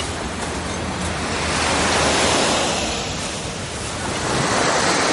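Sea waves wash steadily onto a shore in a broad, hissing roar, swelling twice as surges roll in and recede. Fairly loud, with no voices.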